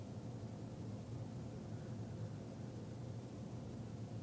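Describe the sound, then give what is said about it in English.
A steady, even roar of ocean surf washes against the shore, a continuous rushing hiss without distinct individual breakers, fairly soft and constant throughout, with no voices. “And then the sound is there crashing against the shore.”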